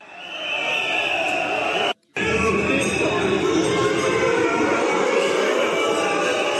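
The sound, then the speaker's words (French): A dense, loud crowd of protesting farmers roars and shouts continuously inside a large exhibition hall as police hold them back, overlapping voices forming a chaotic wall of noise, briefly cut by a moment of silence. “Des cris il est où monte de la foule, les policiers retiennent les manifestants, tant bien que mal, la tension monte, monte, on charge, entend-on, et ce ne sont pas les forces de l'ordre qui crient, mais des agriculteurs.”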